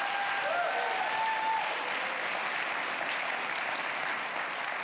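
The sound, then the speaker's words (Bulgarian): Sustained audience applause, a dense, steady wash of many hands clapping that holds at an even level for about five seconds, with a faint tonal whistle or cheer briefly audible near the start. “О, аз бих ръкопляскал, ако бях ти.”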